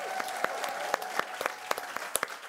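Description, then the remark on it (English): A studio audience applauds steadily to welcome a political strategist and best-selling author as a guest, with a dense stream of sharp, overlapping claps at moderate loudness and no talking. “Make some noise for Liz Smith, y'all.”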